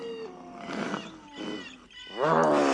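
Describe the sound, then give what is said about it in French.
An angry wolf gives a fierce growl that rises into a loud, rough roar, in a few snarling bursts that swell and build to a strong final outburst. “Le loup, que les géniardises de Bernard exaspèrent, se met subitement en colère.”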